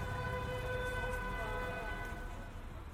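Busy street traffic in eastern Paris, just outside a metro exit: a constant low rumble of vehicles and trams with a sustained car horn blaring above it, and indistinct crowd murmur throughout, moderately loud and steady.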